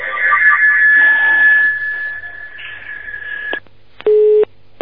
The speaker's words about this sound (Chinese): 哎呀，电话，哎呀，断掉了